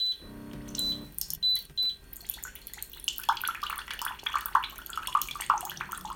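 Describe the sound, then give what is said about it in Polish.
A few short electronic beeps from a hot water dispenser as the pour button is pressed, then boiling water starts pouring steadily into a cup, a splashing stream that continues to the end. “Naciskam przycisk do nalania wody.”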